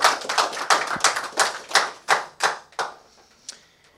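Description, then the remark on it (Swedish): Live audience applause welcoming politician Rasmus Paludan on the show Inblick med Nick: a burst of many hands clapping, dense at first, then thinning into scattered separate claps that fade out over about four seconds. No voices. “Rasmus Paludan, varm applåd.”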